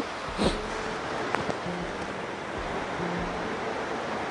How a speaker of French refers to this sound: Là, comme on est sur la cascade, je vais me mettre en paysage.